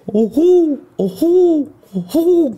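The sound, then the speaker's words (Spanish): A human voice imitates an owl's hoot, three loud, rising-and-falling calls repeated in a steady rhythm. “lo busqué en YouTube. Es, un búho.”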